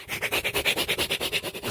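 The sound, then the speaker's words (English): A voice mimics a saw sawing off the bat ears: about ten quick, raspy back-and-forth strokes in an even, rapid rhythm, fairly loud, with no talking. “and he's sawing off the bat ears.”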